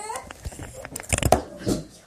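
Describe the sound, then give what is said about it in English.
Several young children chatter and babble in a room, their high-pitched voices overlapping in quick bursts with a few squeals. “Sorry, my kids have all come in the room and, and distracted me.”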